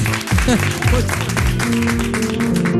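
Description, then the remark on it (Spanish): Loud, steady audience applause fills the whole stretch, a dense crackle of many hands clapping, with voices and tonal sounds rising and falling over it. “Te llevas este fuerte aplauso.”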